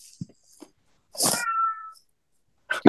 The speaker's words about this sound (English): my cat my cat's got some input on that apparently